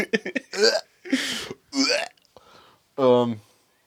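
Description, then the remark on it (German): A person vocally imitates retching and gagging in a series of short, loud, strained bursts with brief gaps between them, with no other talk. “Es gibt ja Leute, die jemanden davon getriggert, wenn man so Kotzgeräusche macht.”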